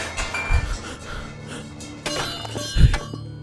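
Metal utensils from a cart that hit a wall crash down onto the road and scatter, a burst of clattering and clinking with heavy thuds, a second loud impact near the end, then the jangling dies away.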